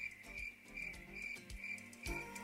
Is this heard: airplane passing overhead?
no